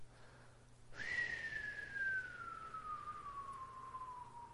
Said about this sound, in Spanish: Ese es el sonido que hacía Saturno